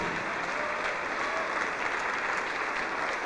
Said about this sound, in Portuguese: Vamos aplaudir mais ao nome de Jesus.